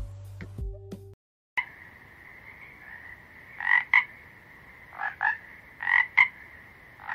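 After a brief silence, frogs, amphibians such as the sabanera frog and the rocket frog, croak over a steady humming chorus, with loud paired calls repeating every second or so. No one speaks.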